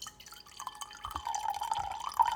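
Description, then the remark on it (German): A drink is poured into a glass: a soft trickle starts, then a steady gurgling stream whose pitch climbs gradually as the glass fills. No one speaks. “Nicht ins Glas pinkeln”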